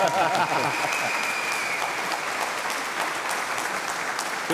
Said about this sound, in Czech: je to na potlesk pro Kalabišku, anebo na...